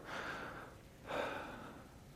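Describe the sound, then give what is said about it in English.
A deep breath drawn in and then let out, two soft, airy rushes of air back to back, quiet with no talking. “Everybody take a breath.”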